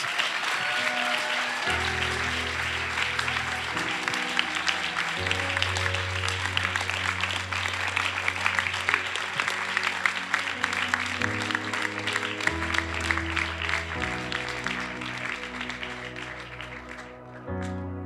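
A crowd claps steadily and loudly for about eighteen seconds to see off the team and the guests, while music with a deep bass line plays underneath, the applause thinning out near the end.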